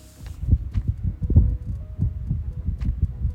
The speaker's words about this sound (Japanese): ボーボー言ってるかもねそのごめん扇風機の風が当たってっからね